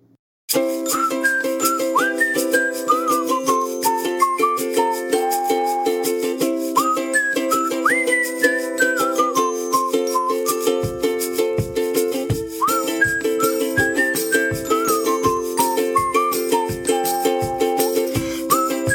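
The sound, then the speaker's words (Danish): A bright whistled melody carries a short, catchy theme jingle for a Facebook Live programme, also released as a ringtone, over steady sustained backing chords, with a rhythmic low beat kicking in partway through; loud and continuous, with no talking. “Hvis ikke du ved, hvad jeg snakker om, så kan du lige høre det her, for nu kommer der nemlig en jingle.”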